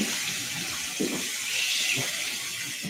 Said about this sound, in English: okay, why don't you splash some water on your face?